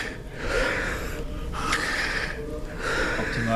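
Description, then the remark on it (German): Heavy, labored breathing of a sweating 50-year-old man as he keeps pedaling through strenuous cycling, finishing at 320 watts, with loud rhythmic gasping inhales and exhales over a low mechanical background. “Er atmet schwer, aber er strampelt weiter.”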